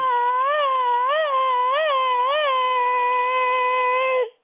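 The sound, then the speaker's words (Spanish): A person sings cat-like meows as part of a song, four quick rising-and-falling swoops on one sustained, loud note, then holds the tone steadily before stopping abruptly. “Venga mi pan, mi pan dice miau, miau, miau, miau, miau, miau.”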